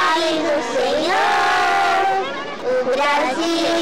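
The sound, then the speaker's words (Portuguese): A crowd of voices in São Paulo sings a welcome song for the arrival of Pope Benedict XVI together, the sustained melody rising and falling in unison, loud and steady throughout with a brief dip near the end. “Cantando uma música para a chegada de Bento XVI, elas ensaiavam.”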